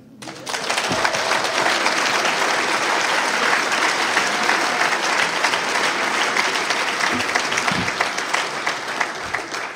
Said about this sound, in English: I heard an AA speaker once says, I can't even remember the joke, but I'm just trying to say, you're clapping to my higher power, not me. I, I didn't do that, but you can clap again for God, that's for sure.